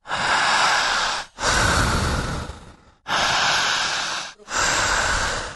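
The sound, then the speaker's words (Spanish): Deep, forceful breaths, four long airy inhales and exhales in a steady rhythm, each roughly a second or more, separated by brief pauses, with no talking. “Jale el aire, siga respirando, fuerte, larga, escúchela.”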